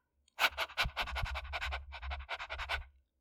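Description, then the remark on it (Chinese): A small dog pants in quick, breathy, evenly spaced huffs, about a dozen in under three seconds, moderately loud with a low hum beneath and no voices. “小狗看着阿茂，就这样子，汪汪，”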